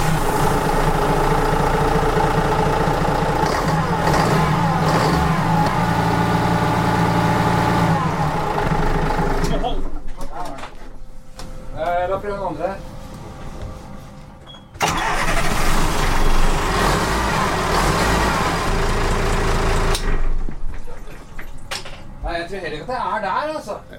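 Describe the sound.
A boat's port-side diesel engine idles high with a steady low rumble, then the revs rise and fall; a man speaks in short stretches between and over the engine noise.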